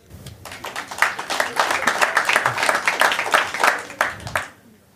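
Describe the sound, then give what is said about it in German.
The couples in a live audience clap for about four seconds, a moderately loud patter of many hands with some cheering voices mixed in, before tapering off. “Irgendjemand, Wollt die Pärchen klatschen?”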